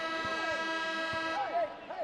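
A referee's whistle at a BYU versus Boise State basketball game, stopping play for an official timeout, sounds as a steady, sustained tone for over a second, then cuts off, followed by short rising-and-falling squeaks over a constant crowd murmur.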